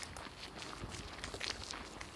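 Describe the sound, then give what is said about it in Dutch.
Steady footsteps of a person walking past a large, beautiful building along an outdoor surface at an even pace, moderately loud, with a faint ambient background and no talking. “Ik ben nu ook aan een heel mooi gebouw aan het lopen.”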